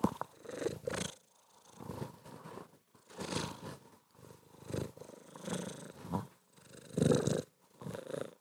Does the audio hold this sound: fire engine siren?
no